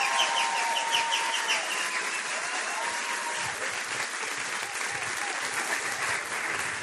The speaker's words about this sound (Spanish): es amigo de esta casa de Doral City Church, y quiero que recibamos con un fuerte aplauso, así como nosotros sabemos recibir con un fuerte aplauso